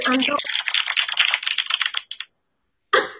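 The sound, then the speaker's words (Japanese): A brief voice gives way to an applause sound effect, a dense, bright crackle of many claps lasting about two seconds that sounds almost like rain. After a short silence, another burst begins. “拍手あるんです、このア拍手なんだ。私今急に雨降ってきたのかと思った。”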